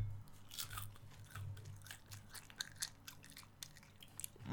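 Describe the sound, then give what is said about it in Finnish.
Crisp crunching of someone chewing Asian-style deep-fried crickets, fried in sesame oil and seasoned with cinnamon, cayenne pepper, fresh chili and salt; a steady series of sharp cracks and munches over a few seconds with no talking. “ääntä kohti. Rouskutellaan.”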